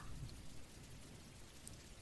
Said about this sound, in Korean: 그리고 빗소리도 들어주시고, 천장을 바라보다가, 그러다가 눈이 무거워지면 자연스레 눈을 감고, 빗소리를 듣고, 그리고 제 목소리를 듣고, 이렇게 하면은 여러 가지 소리가 들려올 거예요.